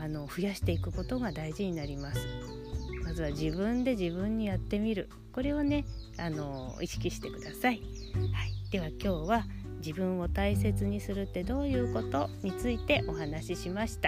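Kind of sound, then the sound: bird, many birds chirping outdoors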